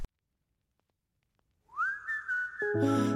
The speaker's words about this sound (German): Nun hören Sie etwas Musik, gute Unterhaltung mit dem Lied …